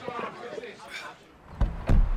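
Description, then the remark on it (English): A driver opens a car's power window with a short mechanical whir and a couple of low clunks near the end, following a moment of indistinct talking. “I open the window to stay alert.”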